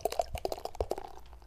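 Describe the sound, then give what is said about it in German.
Beer glugs out of a swing-top bottle in a quick run of gurgling pulses, a steady pour lasting under two seconds with no voices. “Wenn man ein Bier nicht mit einem Kronkorken, sondern mit so einem Bügelverschluss, sagt man, glaube ich.”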